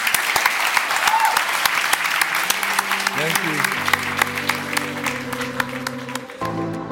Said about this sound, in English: And if it doesn't, we can start clapping. start, uh, you can just start clapping, yeah.